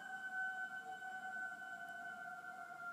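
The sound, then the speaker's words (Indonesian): A person sitting in a car at a deserted cemetery as it grows dark whistles a steady, sustained note. It holds one high pitch without wavering for the full few seconds, fairly clear and moderately loud over faint background hiss, with no one speaking. “Untuk sekedar menghibur diri sendiri, aku pun mulai bersiul.”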